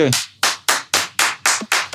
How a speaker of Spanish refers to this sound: Primero aplaudimos como de costumbre